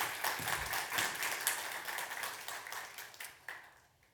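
Sustained audience applause, a dense wash of many hands clapping with sharp individual claps popping through, steady for a few seconds before gradually thinning and fading out.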